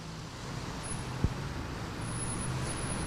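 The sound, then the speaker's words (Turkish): Steady rush-hour city traffic in Mecidiyeköy, Istanbul, Turkey, one of the busiest rush-hour spots, in early December: a continuous low rumble of engines and tires, with a brief sharp thump partway through and a faint high whine running above the din. No one speaks. “Aslında İstanbul'un daha boş e, haliyle karşıma çıkacağını düşünmüştüm ama e, mesai trafiğinin en fazla yaşandığı noktalardan birindeyiz. İstanbul'da Mecidiyeköy'deyiz.”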